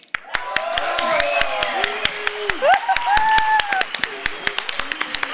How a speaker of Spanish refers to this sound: Estos talentazos se los queremos presentar ahora para toda la audiencia del 96.1 de FM y para el público presente. Recibamos con un fuerte aplauso a Jesús Piceno en la batería.